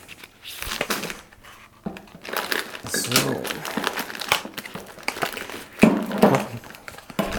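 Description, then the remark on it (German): Continuous crinkling and rustling of foil or paper packaging, with irregular crackly bursts throughout and a brief spoken word near the end. “Sieht eher aus wie. Äh, Folie oder Papier.”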